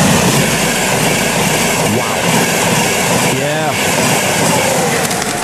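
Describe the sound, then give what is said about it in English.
A train rolls past on a railway track about 10 metres from people's homes, a loud, steady roar of wheels and carriages filling the whole stretch, with a brief metallic squeal rising partway through. “A train didn't go past during that interview. One did just after it. This is what it sounded like.”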